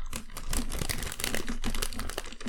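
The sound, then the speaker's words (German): Continuous crinkling of a plastic gummy bear bag as someone takes a gummy bear out of it, a dense run of sharp crackles and rustles lasting a couple of seconds with no voices. “Äh, ich ich äh, werde kurz mal rascheln, weil ich mir so ein Gummibärchen aus so einer Tüte hole.”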